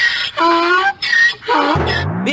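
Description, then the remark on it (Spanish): Donkeys, one of them named Gilemón, bray in loud, harsh bursts, strained high wheezes alternating with deeper honking notes, separated by brief pauses. “pues yo no tengo caballo, tengo unos burros.”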